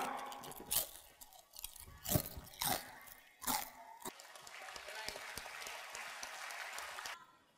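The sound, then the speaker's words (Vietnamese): A crisp biscuit from a snack bag is bitten with several sharp, loud crunches in the first four seconds, followed by a steady stream of softer crackly chewing until it cuts off. “Thế thôi cần gì nói nhiều Lịch sử bánh với cả truyền thống bánh Nó không bằng cái âm thanh cho mồm giòn tan”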